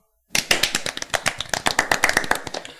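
A short burst of applause: many quick, sharp hand claps overlapping in an uneven rhythm for a couple of seconds, fairly loud and with no voices over it.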